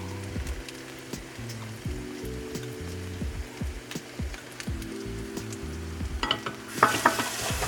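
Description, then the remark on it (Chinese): A seafood pancake topped with chili peppers and leftover egg mixture fries in a pan for about five minutes. It gives a steady, constant crackling hiss with scattered sharp pops and faint clinks, growing louder and busier near the end. Nobody speaks. “那我们大概要煎五分钟左右，然后全部料都摆上去之后，你可以现在淋上刚刚我们剩余的蛋液，把它淋上来。”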